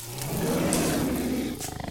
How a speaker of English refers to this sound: A large white wolf, large enough to be eye to eye with Kenni, breaks through the tree line and comes to a defensive position in front of Kenni. Her brilliant blue eyes, alight with rage as she snarls at Nastia and her horde.